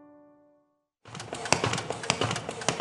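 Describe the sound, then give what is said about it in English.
A paper folding machine at Hope for the Heart starts up after a brief fading tone, then runs loudly with a steady, rapid mechanical clatter and repeated sharp clacks as it prepares hundreds of short biblical resources to send to prisoners around the country. “That's our folding machine preparing hundreds of our short biblical resources to send to prisoners around the country.”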